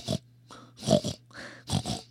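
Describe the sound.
A person imitates a pig oinking, giving about five short, nasal grunting snorts in an uneven rhythm over a faint, steady low hum.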